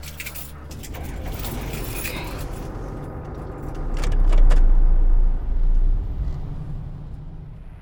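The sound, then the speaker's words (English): A car drives along the road with a steady engine rumble and tire noise, swelling louder for a few seconds midway, with some light clinking and rattling inside the cabin. “I'm on the road. I'll be there in a few hours.”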